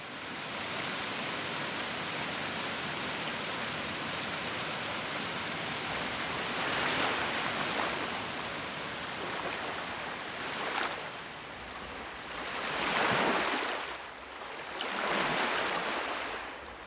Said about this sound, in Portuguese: Sou fluida, sou barulhenta, silenciosa. Porque água é isso. Água é tudo junto.